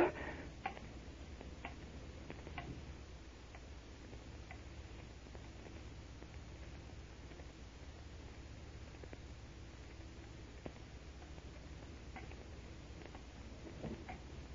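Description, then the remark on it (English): A clock ticks quietly and steadily, with soft, evenly spaced clicks over a low background hum and no voices. “Is that clock right? Uh, correct to the second.”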